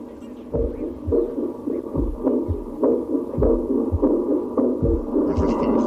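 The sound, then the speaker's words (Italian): A heart beating in a steady rhythm, about ten low, muffled thumps in a row over a constant murmuring hum, with no voices. “All'alba del primo giorno, che era un lunedì, si udì un cuore che batteva all'ombra delle stelle.”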